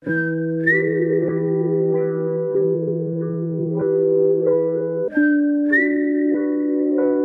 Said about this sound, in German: Und da hat es im Beat immer so ein Pfeifen drin.